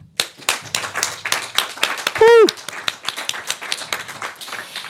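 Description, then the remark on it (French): Audience applause for the illustrators who drew the afternoon's proceedings: a crowd clapping steadily throughout, with many quick, overlapping hand claps. A brief whistle with a rising and falling pitch cuts through the clapping partway in. “On peut les applaudir.”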